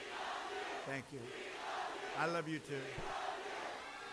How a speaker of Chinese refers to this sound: 人们在大喊：“我们爱你，We love you。”